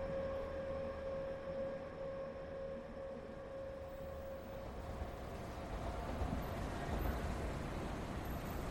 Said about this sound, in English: So here we are at Shimbashi Station in a very nondescript plaza right outside one of the exits. Office buildings around us, the train tracks at our back, a few taller buildings behind them, slightly newer.